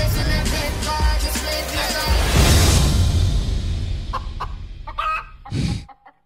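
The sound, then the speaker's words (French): Chickens cluck busily, a dense stream of overlapping clucks and squawks that thins toward the end, with one loud burst before it stops. “C'est une autre poule partie là.”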